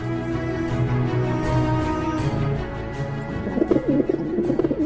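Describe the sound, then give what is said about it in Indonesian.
A dove coos in low, throaty, rolling tones that run steadily through the whole stretch, fairly loud, turning more warbling and fluttery near the end. No one speaks. “Kemudian Nu melepaskan burung merpati.”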